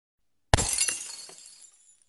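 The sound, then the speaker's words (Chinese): A vase, the last intact one, is thrown onto the floor and smashes with a sudden sharp crash, followed by a bright spray of shattering glass and scattered tinkling fragments that fade over about a second and a half. “赫连明一把最后一个完好的花瓶丢在地上，嘴里咆哮着”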